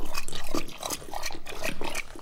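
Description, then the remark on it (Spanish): Wet, rhythmic lapping of a thirsty dog, Apolo, drinking water, a steady series of quick slurping splashes repeating for a couple of seconds with no talking. “Creo que Apolo tiene más sed que yo.”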